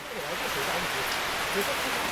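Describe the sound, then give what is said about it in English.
Heavy rain pours down steadily outside a huge greenhouse about two hours south of St. Petersburg, Russia: a dense, continuous hiss like a downpour drumming on a roof overhead, with a faint muffled voice barely audible beneath it. “It's pouring with rain outside, you can probably hear.”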